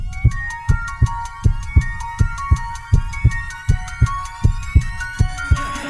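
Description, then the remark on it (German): A steady, thumping heartbeat pulses about twice per second beneath a bright, shimmering musical jingle with chiming tones. No one speaks. “Herzschlag für ein gesundes Berufsleben.”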